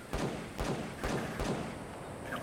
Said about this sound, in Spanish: Ahí si se escucha, pueden apreciar que alguien a lo lejos está disparando un arma también.